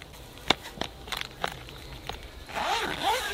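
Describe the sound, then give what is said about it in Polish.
A zipper on the carrying case of portable solar panels being opened in a forest: a few sharp ticks and short tugs, then a longer, rising rasp as the zip runs open. No one speaks. “Baterie słoneczne są w takim śmiesznym etui, Tutaj jest, zdaje się, kabel, tak, splątany.”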